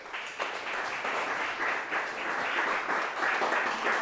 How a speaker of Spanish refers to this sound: Denle un aplauso al que vive.